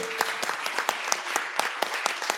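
An audience applauds their author at a presentation, steadily, a dense patter of many hands clapping with sharper individual claps standing out at a fairly even, moderate loudness throughout.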